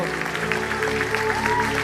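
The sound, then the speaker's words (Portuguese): A church audience applauds the Lord steadily with dense, continuous clapping, while sustained musical tones and murmuring voices carry on underneath throughout. “Vamos aplaudir bem forte ao Senhor.”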